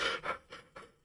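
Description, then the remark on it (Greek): A voice imitates a cat panting with its mouth open like a dog: four quick, breathy huffs in steady rhythm, fairly soft, each fading a little weaker than the last. “Πρώτη φορά είδα γάτα να λαχανιάζει και να είναι με ανοιχτό στόμα σε σκυλί και να κάνει έτσι.”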